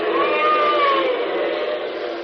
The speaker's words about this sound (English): as the governor, accompanied by Big George Latimer, political boss of the state, steps out to face the veterans and is greeted by a chorus of boos and hisses.